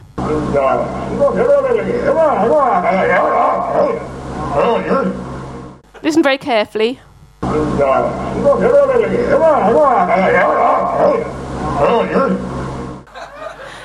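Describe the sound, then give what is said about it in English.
Hoover the talking seal's gruff, gravelly voice imitates human speech in a loud stretch, broken by a brief warbling, wavering call, then the same garbled speech-like passage plays again. “It's actually Hoover the talking seal, yes.”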